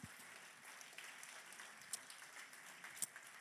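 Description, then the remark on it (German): A church audience in Nuremberg, joined by audiences in Ansbach and Erlangen, applauds steadily during a Sunday service, a dense wash of many hands clapping at once, with a couple of sharper claps or whoops briefly standing out above the continuous roar. “Hey, wie wär's, wenn wir uns nochmal gegenseitig einen riesen Applaus geben?”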